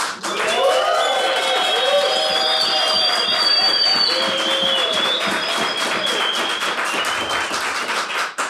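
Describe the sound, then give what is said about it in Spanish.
An audience at a ministerial retreat bursts into sustained applause with cheers and whoops, steady dense clapping for several seconds, voices shouting over it. “En esta ocasión nos hemos juntado, eh, estamos en un retiro ministerial y tenemos una audiencia aquí que también les quiere saludar.”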